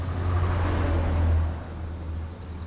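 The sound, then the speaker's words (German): A broad roar of motorway traffic in Bavaria, Germany, carrying some 85,000 heavy trucks and cars daily, with a deep engine rumble, swelling as a heavy vehicle passes and then easing back to a steady wash of passing cars. “den täglich 85.000 vorbeischnaufenden, pfeifenden Schwerlastern und Autos.”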